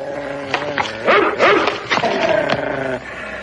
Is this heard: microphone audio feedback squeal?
no